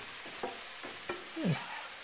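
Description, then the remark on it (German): Garlic just added to a hot pan sizzles with a steady frying hiss, punctuated by a few short scraping knocks of a utensil stirring it. “Jetzt hauen wir dann die, den Knoblauch dazu.”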